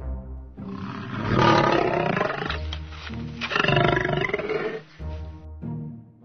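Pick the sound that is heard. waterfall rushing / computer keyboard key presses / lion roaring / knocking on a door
lion roaring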